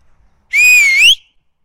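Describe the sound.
A single loud, high-pitched whistle to call a dog named Bruinie, outdoors amid very tall grass, held steady for about half a second before sliding upward at the end, with no talking around it.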